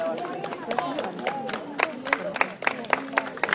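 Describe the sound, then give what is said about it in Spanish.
A volley of arrows flies in on a battlefield, heard as a rapid, irregular string of sharp whooshing hits, loud, over a murmur of battle voices and crowd noise. “ese sonido que oís es las flechas.”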